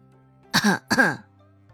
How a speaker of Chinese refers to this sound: 王氏清了清嗓子